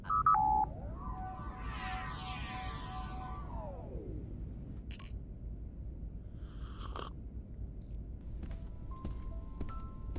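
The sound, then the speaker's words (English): Short electronic dialing tones beep as a secure call is placed from the USS Vigilance to Nora Wilson at Narendra Station, then a sweeping, warbling connection tone rises and falls over a low steady hum, followed by sparse clicks and brief electronic blips. “Could you please place a secure call to Nora Wilson at Narendra Station and put it through in here?”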